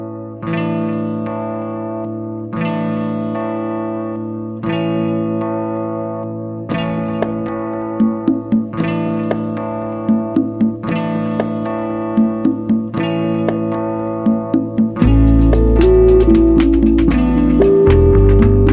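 A rock band's cover of a song: chorus-drenched electric guitar chords ring out in repeated two-second phrases, joined by crisp accents, before the full band surges in louder near the end.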